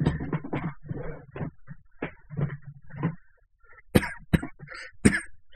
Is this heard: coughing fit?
yes